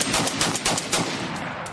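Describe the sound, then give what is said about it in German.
Rapid bursts of gunfire as locals in a small US East Coast town shoot down two Budweiser advertising balloons, a dense series of sharp cracking shots fired in quick succession over a noisy, crackling background, with no voices. “Aufgebrachte Heimatschützer in einer Ostküstenkleinstadt haben zwei Budweiser Werbeballons abgeschossen und die weiße Kugel des Wasserturms durchsiebt.”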